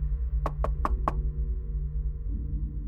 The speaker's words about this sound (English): So he knocked on the door and waited. Moments passed, and nothing. He knocked again.